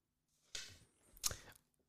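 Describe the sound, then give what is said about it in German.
Two short bursts of crisp paper handling as a letter on very thick, coloured paper is handled: a stiff rustle and then a sharper crinkle, fairly quiet, with no talking. “Oh, jetzt müsstet ihr seinen Blick sehen, der hat einen Brief in der Hand. Auf sehr dickem Papier.”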